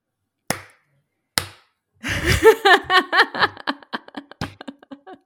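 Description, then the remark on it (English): Two sharp, deliberate claps land about a second apart in a slow clap, then loud laughter breaks out, with a few more scattered claps mixed in. “that is not background noise, people. That is me slow clapping.”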